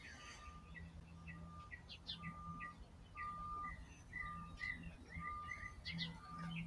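Birds sing and chirp continuously in a garden, with repeated short tweets and warbling calls over a steady low background hum.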